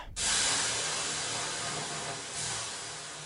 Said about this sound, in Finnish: Nyt heitetään hieman löylyä.